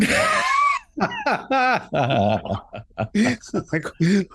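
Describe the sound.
A voice imitates a sharp, breathy gasp at the start, followed by a quick run of laughing, talk-like vocal bursts.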